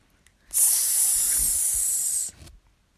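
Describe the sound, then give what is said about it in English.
A single sustained aerosol spray hiss, sprayed from a can at someone, loud, bright and airy, lasting about two seconds before cutting off abruptly, with no talking. “The cloud of spray got closer, and Flat Petey had to act fast.”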